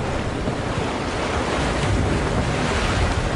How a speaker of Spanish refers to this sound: Esto, por ejemplo, es un paisaje de un mar, ¿ok? Y este paisaje de mar, yo puedo bajar las olas y ponerle animalitos.